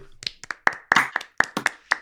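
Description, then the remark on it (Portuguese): Hands clap about eight times in a brisk, fairly steady rhythm, each clap a sharp, crisp smack with no talking over it. “Palmas, palmas aí.”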